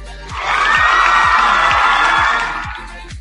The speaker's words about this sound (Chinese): 嘟嘟嘟，来一波小掌声。